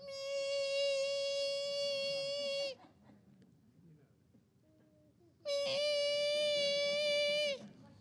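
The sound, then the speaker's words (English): A voice imitates the whine of a mosquito heard at night in bed: two long, steady, nasal buzzing tones, each about two to three seconds, separated by a quiet pause. Loud, with no talking. “Okay, drippy tap, mosquito.”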